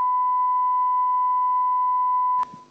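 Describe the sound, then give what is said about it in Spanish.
A loud, steady censor bleep covering a person's name holds one unbroken pitch for about two and a half seconds, then cuts off abruptly as a brief fragment of voice begins. “Mira, simplemente hay una persona en esa lista, pitido”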